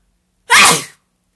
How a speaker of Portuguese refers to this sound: Tá porra, vou espirrar, hein?